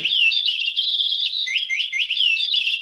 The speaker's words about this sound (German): Die klingt auch ein bisschen anders als ein normaler Papagei, er krächzt ja.